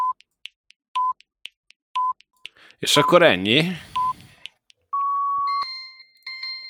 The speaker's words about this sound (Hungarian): Hopp, a telefonom is csipog, ez nem lesz jó.